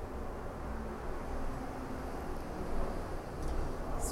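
A bus rumbles past outside, a steady, muffled engine roar with broad low-end noise that swells slightly toward the end, with no one talking.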